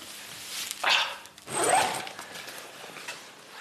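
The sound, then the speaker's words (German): A new ski jacket, meant to keep the wearer's back dry, being zipped up in two quick pulls as dry clothes are put on: a short rasping zip followed by a longer one, with no talking. “Aber jetzt ziehen wir trockene Klamotten an.”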